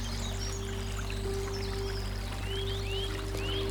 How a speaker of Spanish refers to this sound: Ahora te invito a que te levantes y que sigas caminando y empiezas a escuchar el sonido de un riachuelo. Caminas y por fin lo ves y te sientas en la orilla.